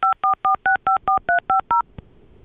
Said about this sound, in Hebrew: אז בואו נרים לו טלפון.